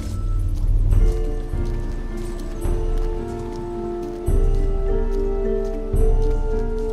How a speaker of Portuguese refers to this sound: Estão ouvindo isso, amigos? Parece um eco de uma onda. Essa deve ser a caverna.